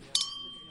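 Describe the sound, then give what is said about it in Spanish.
Glasses clink together in a toast, two quick bright taps close together, followed by a thin ringing tone that fades out against a quiet background. “Salud chicos, muchas felicidades.”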